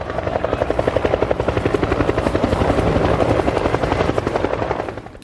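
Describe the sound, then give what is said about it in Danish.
Loud helicopter rotor noise with a steady, rapid thumping beat over a broad engine roar, holding constant before fading out at the very end. No voices. “Nu skal vi høre Nils fortælle om dengang, han sad i en helikopter”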